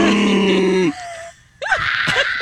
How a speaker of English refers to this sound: I need to hear his first gasp for air